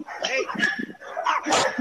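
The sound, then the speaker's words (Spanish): A black dog barks and yelps excitedly in several loud bursts over under two seconds, with people's voices talking over it. “Señor, agarra el perro viene, va para arriba, le va para arriba el tipo de nuevo.”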